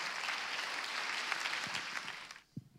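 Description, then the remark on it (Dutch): A standing crowd applauds to welcome a guest, in a dense, steady patter of many hands clapping, then the clapping stops abruptly, leaving a brief low thump in the quiet. “Dus laten we een applaus geven voor, voor Kees.”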